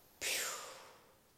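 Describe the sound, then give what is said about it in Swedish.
A single soft, airy exhale during a guided breathing meditation starts abruptly and trails off gradually over about a second. It is breathy, with no talking. “Andningen passerar upp, upp, ut i våra grenar och andas ut.”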